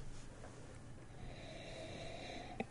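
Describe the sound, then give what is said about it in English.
A long, slow, deep sniff of beer aroma drawn in through the nose, fairly quiet, with no talking, ending in a brief sharp click. “He's just closing his eyes and breathing I'm just, the beer.”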